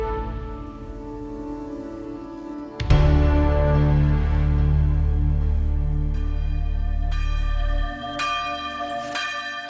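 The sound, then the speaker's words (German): Large church bells of Brixen Cathedral in Brixen peal together in a rich, overlapping ring, with a deep new stroke entering near the start and higher bells joining later, resonant, no voices. “Herr Mohling erklärt uns ein bisschen was zum Brixener Dom, dessen Glockengeläut wir im Hintergrund hören”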